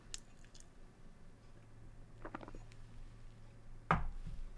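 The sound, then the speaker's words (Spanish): Someone takes a quiet sip of water: soft wet mouth clicks and faint slurping, then a louder swallow near the end, with no talking. “Permíteme tomar un trago de agua.”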